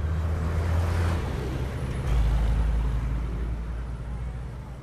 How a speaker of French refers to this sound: Nous sommes au centre de Londres. Il est midi et la ville est plus animée que jamais. Des files de voitures encombrent les rues et les piétons se pressent sur les trottoirs.